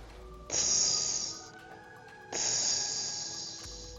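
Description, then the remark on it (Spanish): A voice imitates the air-release hiss of dump trucks or large company trucks, as if letting out air or gas: two long, loud hissing bursts, each lasting about a second, separated by a short pause, with no talking. “Los camiones de volteo o camiones grandes de la compañía hacían ese sonido.”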